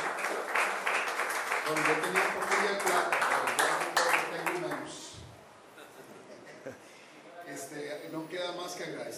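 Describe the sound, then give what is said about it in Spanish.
Audience applause after a speaker finishes a talk: a dense, steady burst of many hands clapping for about five seconds, then tapering off into quieter scattered claps and murmuring voices. “Un aplauso.”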